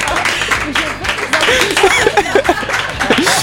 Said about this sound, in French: Allez, on applaudit